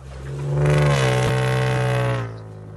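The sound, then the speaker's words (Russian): A car engine roars loudly for a couple of seconds as the car, at full speed, hits two men on snow tubes towed behind another car who flew into the oncoming lane, with a brief clattering knock partway through before the engine noise drops away. “Двое мужчин вылетели на встречку, где их на полной скорости сбил автомобиль.”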